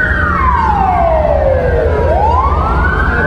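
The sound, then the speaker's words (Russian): A convoy of buses carrying riot troops with shields and helmets rumbles past while a loud siren wails over the traffic, sweeping down in pitch and then rising again. “даже не автозаки, а какие-то автобусы.”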